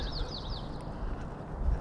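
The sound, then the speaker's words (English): Birds chirp in the morning, in a breeze at about 43 degrees as the sky starts to light up, in a quick run of three or four bright, sliding calls early on, then fade out, leaving a steady outdoor hiss and low rumble. “The birds seem to agree with me. They're just breezing along with the breeze, doing their morning thing.”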